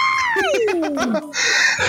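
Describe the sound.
A voice imitates a thin, squeaky little scream: a single high squeal sliding steadily downward for about a second, fairly loud, followed by a short breathy, noisy burst.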